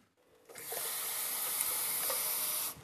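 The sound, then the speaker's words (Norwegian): A steady rush of water being poured to make a cup of tea, lasting a couple of seconds, starting and stopping abruptly, with a bright hissing texture and no voices. “Hun koker seg en kopp te.”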